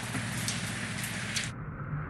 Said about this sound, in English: And right now, you can see it's torrentially raining where I am.